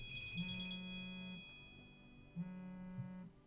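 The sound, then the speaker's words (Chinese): The speaker's phone rings during a conversation, with two buzzing electronic bursts about a second each, separated by a short pause, steady in pitch and moderately loud, with no one speaking. “我的电话响了一下”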